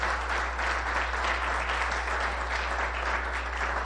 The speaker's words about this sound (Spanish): Si usted es tan gentil, si usted es un hombre, dele un aplauso a esas señoras con todo el corazón. Pero ese aplauso, no, un aplauso para las señoras, por favor.